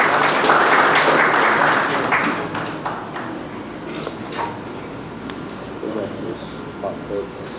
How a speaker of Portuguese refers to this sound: Uma salva de palmas ao presidente da SOAP,